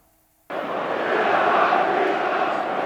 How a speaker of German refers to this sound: Die Hoffenheim-Fans schreien ihren Frust heraus, haben die Schnauze voll nach 13 Spielen ohne Sieg.